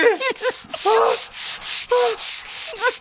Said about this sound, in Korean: 아, 아이고, 때 많대야. 아, 그래야, 이래야 때 미는 사람이 재밌지. 줄줄이 나오네, 줄줄이 지우개 마냥.